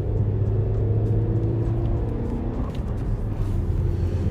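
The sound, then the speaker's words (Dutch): A fast ID3 electric car speeds up, its motor giving a steady whir over a low rumble, with a faint tonal whine held throughout and no gear changes. “Je ziet dat het gewoon elektrisch karretjes zijn. Ze zijn zo venijnig elektrisch snel.”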